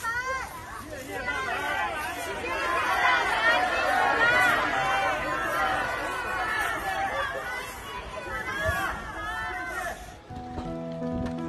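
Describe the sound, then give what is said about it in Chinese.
Residents of a Shanghai housing compound applaud and cheer from their balconies for visiting medical workers from Jinggangshan, Jiangxi, after citywide COVID testing, a dense, steady swell of many voices calling out over clapping for about ten seconds, ending with a brief sustained tone. “然后等医护人员结束的时候，让我们都能站在阳台上为他们鼓掌，谢谢他们。”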